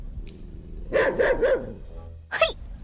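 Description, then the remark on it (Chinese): A guard dog barks in a quick burst of three harsh, mid-pitched woofs, followed after a short pause by one more sharp bark; no one speaks. “他冲着凶恶的看门狗大喊：”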